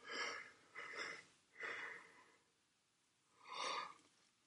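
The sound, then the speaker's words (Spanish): A drawn-out yawn with several breathy, wheezy surges, fairly loud, ending in a final long exhaling swell after a short quiet gap. “O oh, el bostezo que te induzco desde aquí, el telebostezo.”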